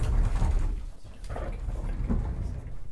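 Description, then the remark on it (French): A sliding bathroom door rolls along its track with a steady low rumble and scraping friction for about three seconds, moderately loud, with no voices. “La carte de la salle de bain qui coulisse.”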